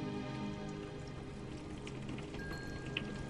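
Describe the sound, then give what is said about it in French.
Soft, steady patter of raindrops tapping lightly against a window, with scattered brighter drips standing out near the end over a low, continuous background hum. “alors que les gouttes de pluie tapotaient légèrement contre une fenêtre voisine.”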